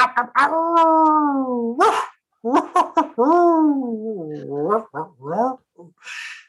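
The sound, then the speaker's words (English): A person in West Central Wisconsin imitates a dog, letting out two long, wavering howls with short yelps and breathy bursts between them, loud. “Went back to the howl.”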